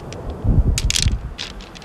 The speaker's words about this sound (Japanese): この石も落ちててこの石もたまらへんええ音するでしょ